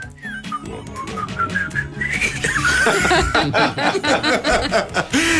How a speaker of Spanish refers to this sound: te pedía algo que era que nos recordases eh, el genérico de de la serie. ¿El genérico de la serie? Hombre, sí. Oye, tú la silbas muy bien también, ¿eh?